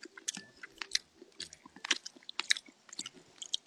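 Wet, crunchy chewing of wood ear mushrooms, a rapid series of irregular bites and squelches with sharp crisp clicks, fairly quiet and with no talking.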